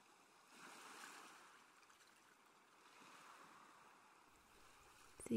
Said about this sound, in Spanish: Disfruta de las olas del mar. Disfruta de su sonido.